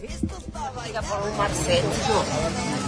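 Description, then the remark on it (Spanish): A dense crowd babble on Calle Rincón as a throng of people rushes onto one person, many overlapping voices shouting and murmuring at once, fairly loud, with a restless, agitated energy and no single voice standing out. “Imagínense ustedes que están ahí caminando por, por la calle Rincón y de pronto ven un tumulto de personas abalanzadas sobre otra y se escucha esto.”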